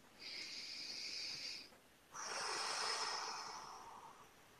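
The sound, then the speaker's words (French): A single deep breath taken as part of a breathing exercise during spoken affirmations, soft: a slightly whistling inhale lasting over a second, a brief pause, then a longer, airy exhale that gradually fades. No one speaks. “Alors, une respiration.”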